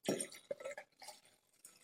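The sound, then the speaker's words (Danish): Wine glugs and splashes into a glass in short uneven bursts, a soft gurgling pour with a faint glassy ring partway through, fairly quiet and with no one talking. “Nu er vi ude i en anden øh, vin, vi hælder op nu.”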